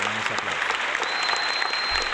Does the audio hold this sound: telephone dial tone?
no